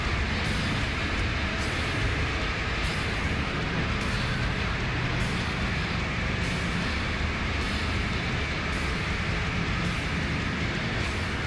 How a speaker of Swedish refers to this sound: Ja, nu verkar det som tåget kommer här snart.